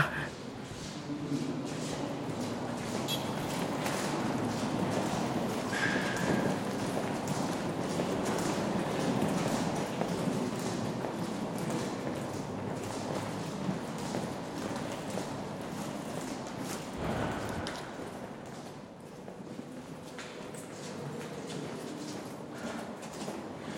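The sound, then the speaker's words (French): Steady footsteps echo along a hard-floored corridor of the Sorbonne, heading toward the Richelieu amphitheatre, a continuous shuffle of many steps with faint background murmuring voices throughout. “Alors on est dans les couloirs de la Sorbonne et on se dirige vers l'amphithéâtre Richelieu”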